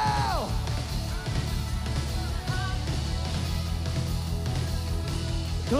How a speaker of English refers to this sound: Lift your worship. Lift your praise. Somebody scream. Somebody shout.